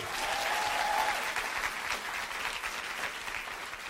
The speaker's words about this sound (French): C'est le premier épisode de Simple Caféine en live. Euh, et c'est aussi le premier épisode de l'année finalement, donc on s'applaudit, on s'applaudit.